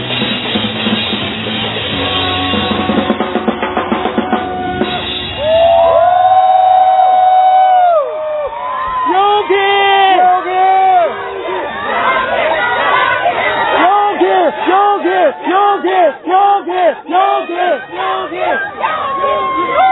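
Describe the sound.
A large crowd at a live show at Universal Studios Beijing, a drummer's final graduation performance, cheers and screams in loud, overlapping waves of high-pitched voices, starting as a noisy din and swelling into sustained shrieks and whoops that continue to the end.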